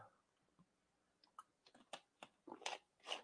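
Someone takes a quiet sip of water, with soft wet clicks and gulping sounds that grow a little louder and quicker toward the end, and no talking.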